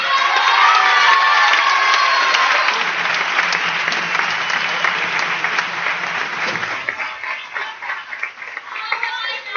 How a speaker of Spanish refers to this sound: Por suerte, por suerte, su plaza no va a quedar vacía hoy porque quién mejor para ocuparla que su hermana. Un aplauso para Tomás.